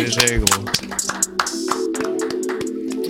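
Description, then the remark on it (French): A quick burst of uneven hand clapping, sharp and fairly loud, running for a few seconds over a steady low hum and some murmuring voices. “ça rendait pas mal le micro, j'applaudirais.”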